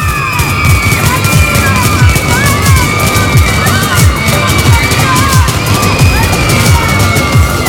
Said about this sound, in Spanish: Varias armas disparando a la vez.